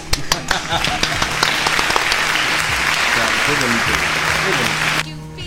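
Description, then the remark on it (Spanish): Dense, sustained applause from a group on the program Hoy en Día, welcoming a guest in the booth, many overlapping claps forming a steady wash of noise for about five seconds before stopping abruptly, with voices murmuring and calling out underneath. “¡Aplausos!”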